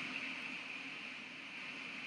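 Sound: white noise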